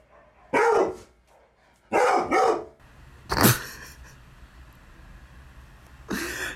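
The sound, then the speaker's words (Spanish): A dog named Zeus barks loudly, letting out several sharp barks, one a quick double, spaced out with short pauses between them and no one talking. “Chicos, vamos a hacer un pequeño corte porque Zeus está ladrando mucho.”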